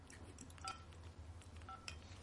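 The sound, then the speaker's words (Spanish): Two short electronic ringtones from a mobile phone being tried out sound about a second apart, faint against a low background hum. “Se oyen todos igual.”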